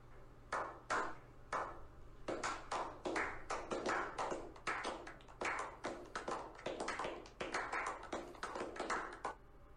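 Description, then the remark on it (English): Sparse, uneven clapping from just a few people, imitating three or four people at the back of a comedy show crowd hesitantly clapping at a joke; the claps are sharp and irregular and never build into full applause, going on for about nine seconds with no voices. “there's like three or four people that are like in the back and they don't want to make it obvious, so they give it a second”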